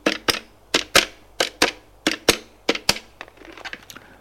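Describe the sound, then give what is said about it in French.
A lawyer dials a telephone number on his phone: a quick series of sharp, crisp clicks in small uneven groups, fairly loud, ending in a soft rustle. No voices. “L'avocat, qui n'est pas un idiot, une fois que le père est parti, prend son téléphone, fait un numéro.”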